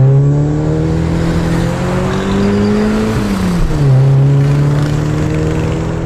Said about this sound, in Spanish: Ya van por Tlalpan en la carretera libre. Qué bien dejó el auto Gervasio.